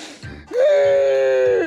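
A single drawn-out, high wailing cry rises sharply and holds steady for about a second before breaking off, loud, preceded by a short breathy sob.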